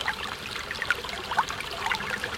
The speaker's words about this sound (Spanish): Cuando el río suena